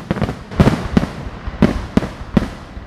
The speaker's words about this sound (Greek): Οι δύο τελετές όμως έχουν ένα απροσδόκητο κοινό. Μία βροχή από πυροτεχνήματα και βεγγαλικά μέχρι στρακαστρούκες και σκορδάκια.